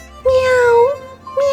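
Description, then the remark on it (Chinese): A voice imitates a cat's meow: a long, drawn-out, mid-pitched 'meow' followed after a short pause by the start of a second one, clear and fairly loud. “喵喵，猫咪讲：我毋知啦，你去问阿弟。”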